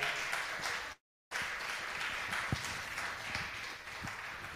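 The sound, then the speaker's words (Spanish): A church audience applauds the Lord in a steady, dense wash of many hands clapping, briefly cut off by a second of silence before the sustained applause resumes at the same level. “Si da un aplauso de eso, no fuerte al Señor.”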